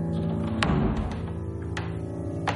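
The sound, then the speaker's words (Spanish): A door opens as Borodín opens Ana's door, with a handful of sharp clicks and soft thunks spaced a second or so apart, set against a steady low humming drone that runs throughout. “Abre la puerta de Ana.”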